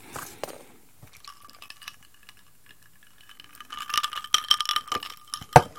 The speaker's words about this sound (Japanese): 蓋の音蓋の音は人気のある ASMR トリガーの一つですね